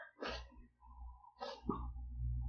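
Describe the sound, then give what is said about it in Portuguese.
Two sharp sneezes about a second apart, each a sudden breathy burst, over a steady low background hum with no talking. “Ai, gente, desculpa que eu tô achando que eu vou espirrar.”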